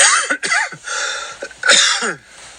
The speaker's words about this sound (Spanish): Ah, ya, discúlpenme, ya saben, con mi tos recurrente, que no se me va.